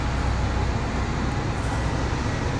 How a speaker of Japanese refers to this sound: えーと大型のバスが通りました今そうだね池袋だね